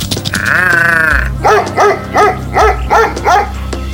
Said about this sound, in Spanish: Criatura extraña que se acercaba, el sabueso con gran potencia le ladraba.